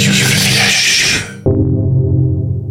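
A loud folk rock song plays with no talking. A dense, bright wash of strummed sound suddenly cuts to a darker passage of low, sustained tones.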